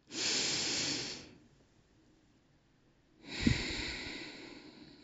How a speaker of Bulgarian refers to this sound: И когато вече не можем повече, отключваме гърлото, диафрагмата, ануса и взимаме дълбоко дъх.